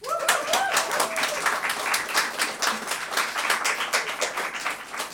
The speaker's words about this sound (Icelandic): gefum henni gott klapp